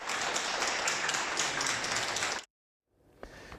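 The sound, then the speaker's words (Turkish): A dense burst of crowd applause as coronavirus patients are discharged after treatment, many hands clapping steadily for about two and a half seconds, then cutting off abruptly into silence before a faint rustle returns. “Bolu'da 80 ve 81 yaşlarındaki yaşlı çiftle Sakarya'da koronavirüs tedavisi gören 5 hasta yine alkışlarla taburcu edildi.”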